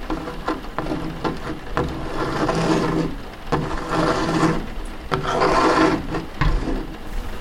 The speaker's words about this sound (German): Daniel kratzt mit seiner Hand über den Boden.